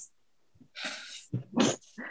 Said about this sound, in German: Komm also, zurück, verdammter Hund!